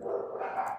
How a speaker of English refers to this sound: Oh, that's my dog's next door. That sounds like fun, doesn't it?